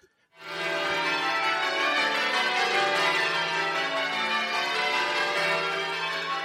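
Church bells ring out in a dense, overlapping peal that starts abruptly and stays loud and steady throughout, with no voices.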